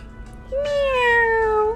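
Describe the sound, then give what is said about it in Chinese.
A single drawn-out meow from a small white kitten, high and clear, starting with a rising onset then slowly gliding downward in pitch over about a second, heard alone with a faint low hum beneath. “哦，这只小白猫看起来真好看。”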